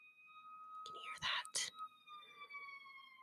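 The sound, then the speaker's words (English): A police siren wails faintly outside, a steady tone slowly sliding lower, while a couple of brief breathy, whispery sounds cut in. “I think they're coming for my dog who just took a massive shit outside.”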